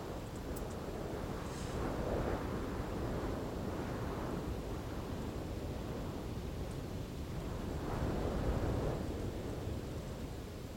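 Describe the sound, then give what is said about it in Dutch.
Steady roaring wind buffets a tent pitched high in the mountains at about 1800 metres, among bushes and surrounded by high mountains, swelling into stronger gusts around two seconds in and again near eight seconds, a broad rushing noise with no voices. “Dus als er dan zo'n windvlaag is, dan eh, is het mij niet helemaal duidelijk waar die wind nou vandaan komt.”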